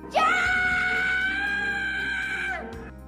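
A woman lets out a single long, high-pitched scream, loud and close, rising sharply at the start and holding steady for over two seconds before cutting off.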